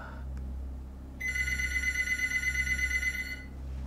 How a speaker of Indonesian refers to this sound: pas dilihat ternyata itu telepon dari Aji.